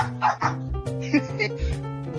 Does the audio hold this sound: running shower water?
no